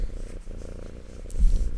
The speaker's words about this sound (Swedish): Kan, kan, du, kan du sluta hålla på med micken? Jag hör att det spinner